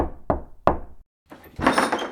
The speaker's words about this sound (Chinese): 那我来敲敲门。